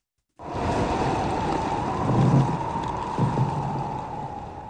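An icebreaker ploughs steadily through Arctic sea ice on its way to the North Pole: a continuous broad roar of engine and churning water with a couple of low grinding crunches as the hull breaks ice, fairly loud.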